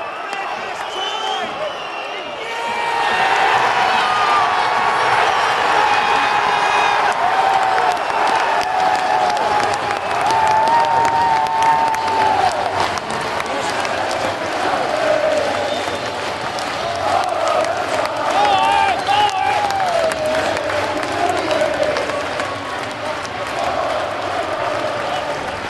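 A football crowd at the Crystal Palace stadium cheers and applauds, swelling into a loud, steady roar after a few seconds. Sung chants rise and fall through the constant clapping and shouting.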